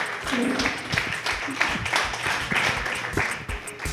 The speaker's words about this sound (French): On applaudit tout le monde! merci tout le monde! Merci, merci, vous étiez formidables!